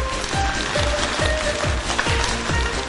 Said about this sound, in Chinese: 听懂了，掌声鼓励一下。